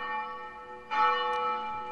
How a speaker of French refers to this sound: étrange dimanche de carême pour tous les chrétiens qui ne peuvent se rendre à l'église à cause du coronavirus, mais un peu partout dans le monde, les églises vont faire sonner leurs cloches pour donner du courage aux populations enfermées chez elles.